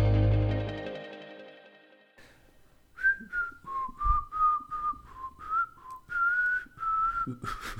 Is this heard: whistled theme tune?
yes